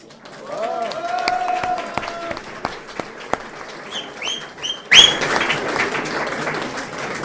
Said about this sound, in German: Ich glaube, die haben sich jetzt einmal einen gescheiten Applaus verdient, was die da alle zwingen gebracht haben.